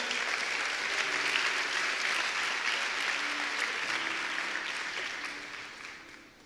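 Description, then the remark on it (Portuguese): A church audience applauds at the preacher's request during a sermon, in a dense, steady wash of clapping that holds strong for several seconds before tapering off at the end. No one speaks over it. “Você pode aplaudir?”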